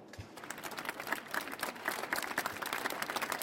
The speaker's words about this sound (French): Il était 20h à Londres. Les Britanniques ont vécu ce moment solennel chez eux, sur le pas de leur porte ou encore dans la rue. La minute de silence qui a ensuite laissé sa place à de longs applaudissements.